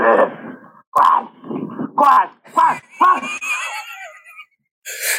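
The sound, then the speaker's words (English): A man lets out a series of loud, strained groaning cries, short "ah" bursts in an uneven rhythm, as a bear charges at him, followed by a brief pause and a sharp noisy burst. “This guy's making the weirdest noise. I would have been yelling, fuck, ah. This guy's going, ah, ah.”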